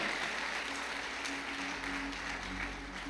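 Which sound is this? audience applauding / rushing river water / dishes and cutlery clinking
audience applauding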